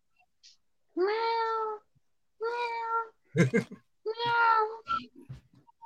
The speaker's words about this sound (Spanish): En eso, el gatito empieza a maullar porque no encuentra a su mamita.